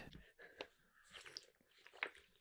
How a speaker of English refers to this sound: listen to you guzzle. I didn't. I just took a sip.